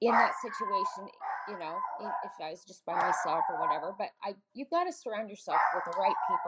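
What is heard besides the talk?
dog barking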